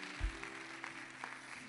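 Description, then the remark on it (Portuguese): Soft, steady applause from an audience: a dense wash of many hands clapping at once, with a few sharper claps standing out. It stays low in volume and even throughout. “Uma salva de palmas para esses irmãos queridos.”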